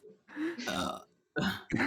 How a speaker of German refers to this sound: Rülps.